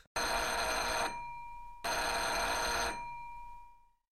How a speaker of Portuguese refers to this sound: A campainha está tocando.